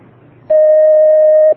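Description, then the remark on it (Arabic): A single steady electronic phone-line tone sounds loudly for about a second as another caller's call connects, a flat sustained beep with faint harmonics, following a quiet low hum and cutting off abruptly. “عليكم السلام ورحمة الله ناخذ اتصال آخر.”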